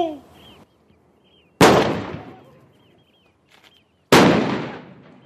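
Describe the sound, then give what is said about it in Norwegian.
Two heavy cannon shots boom out a couple of seconds apart at Oscarsborg fortress in a reenactment of the 9 April 1940 battle in the Drøbak Sound, each a sudden loud blast followed by a long, rolling echo that fades away. A brief voice gives firing commands before the first shot. “Batterisjef, ild kan åpnes! Kanon én!”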